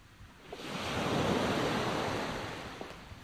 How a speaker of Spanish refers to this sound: ¿Y aquí? Qué raro. Cuando venía en el auto, desde que empecé a escuchar el mar y a percibir la brisa